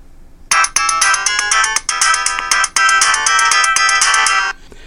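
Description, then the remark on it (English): A phone's factory-default ringtone plays loudly, a bright, busy electronic melody of rapid repeating notes in a few bursts, stopping after about four seconds with no one talking. “There default, left soft key, select, right soft key. You play. all have heard this. In fact, your phone will come this way from the factory.”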